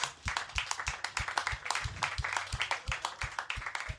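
A crowd applauds steadily, a dense flurry of overlapping hand claps holding a fairly even loudness for about four seconds, with no talking over it.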